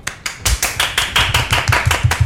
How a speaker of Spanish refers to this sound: Oigan, y te, les tenemos una sorpresa porque tenemos una invitada especial el día de hoy. Un aplauso.